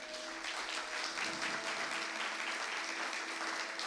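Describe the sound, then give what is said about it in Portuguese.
A church audience applauds steadily to welcome a visiting pastor from the Manancial de Fé church in Mogi das Cruzes, a dense, even wash of many hands clapping that holds at a constant loudness throughout, with no talking over it. “Vamos recebê-lo com uma salva de palmas.”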